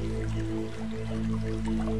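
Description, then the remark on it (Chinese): A distant stream trickles and babbles softly and continuously, with small scattered drip-like splashes, all layered over a steady, low, humming musical drone. No one speaks. “你听，远处还有小溪流水的声音，这就像古诗里面的场景：小桥流水人家。”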